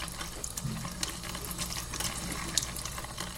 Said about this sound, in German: Die Tomatenzüchterin schüttet den Sud mit den Tomatensamen durch ein Sieb, das sie unter fließendes Wasser hält. Mit den Fingern entfernt sie kleine Fruchtfleischreste, bis nur noch die sauberen Samenkörner übrig bleiben.